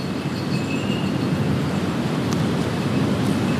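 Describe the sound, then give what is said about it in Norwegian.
A steady outdoor hush with wind blowing continuously and a low, even rumble underneath in the centre of Svelgen, a village of just over 1000 inhabitants, on a Friday evening; no voices or distinct events, just a constant, fairly loud wash of air for a few seconds. “Og hvor fredagskveld i sentrum stort sett høres slik ut.”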